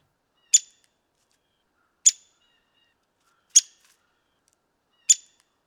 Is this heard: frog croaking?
no